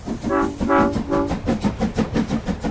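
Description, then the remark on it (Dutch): Three short, loud train horn blasts in quick succession, followed by a steady rhythmic clatter of wheels rolling over rail joints. “En dat is, ik heb nog eens de trein genomen.”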